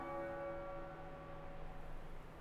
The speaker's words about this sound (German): Irgendwo, weit entfernt, klangen Kirchenglocken einsam durch den Wald.